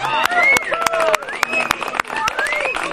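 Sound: applause and cheering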